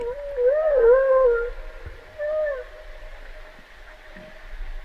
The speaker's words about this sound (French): mais c'est, ça ressemble énormément. Ça pourrait complètement être une une vocaliste de, baleine à bosse très proche en fait de l'hydrophone.